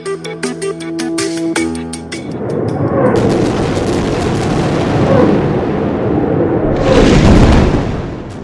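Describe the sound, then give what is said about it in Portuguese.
Israeli bombing explosions in the Gaza Strip, answering rocket fire, rumble in a continuous, heavy roar, with a louder, sharper blast bursting out near the end; a brief tonal hum fades out at the start, and no one speaks. “Os disparos de foguetes da faixa de Gaza foram respondidos com bombardeios.”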